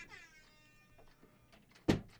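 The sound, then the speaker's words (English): A door shuts with a single firm thud near the end, loud, after a faint high, whining tone and quiet background noise; no one speaks. “Please shut the door on your way out.”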